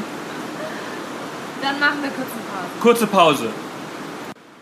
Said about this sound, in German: Man, es regnet noch, wir haben jetzt ein bisschen gewartet, aber das sollte jetzt reichen. Tut mir leid für die Hintergrundgeräusche, so ist das nun mal.